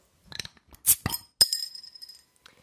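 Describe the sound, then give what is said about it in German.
Glasses holding alcoholic drinks clink together in a toast, a few bright chiming touches followed by one clear ringing clink that lingers briefly before fading, with no talking. “Und äh, wir haben beide uns alkoholische Getränke zur Hand genommen, um den äh, Sieg vom Wochenende zu feiern.”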